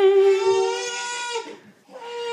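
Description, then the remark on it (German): A six-month-old baby cries loudly in a long, high, sustained wail, breaks off briefly, then starts into another cry. “So, das ist jetzt äh, äh die Folge wird gerade abmoderiert von einem sechs Monaten dicken alten Baby.”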